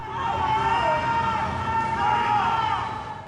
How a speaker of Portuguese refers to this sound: De repente, correria e gritos do alto do prédio.